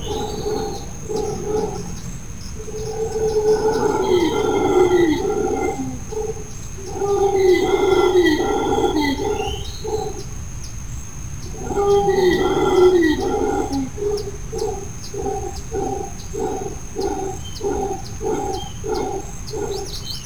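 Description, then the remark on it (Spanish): Howler monkeys call in a tropical forest in southeastern Mexico, deep rasping roars swelling in three long bouts and then breaking into rhythmic grunting pulses, with a steady high insect hum in the background. “pues estamos en otra entrega de Resistierra, Ecología y Buen Vivir y escuchamos un paisaje sonoro del mono aullador en la selva del sureste mexicano.”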